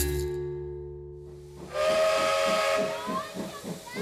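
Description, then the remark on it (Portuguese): A steam locomotive's whistle blows a steady, sustained tone, then gives way to a loud rush of hissing steam with a rhythmic chuffing pulse underneath. “Veio o caminho de ferro e a máquina a vapor, depois o carro elétrico, o carril e o elevador.”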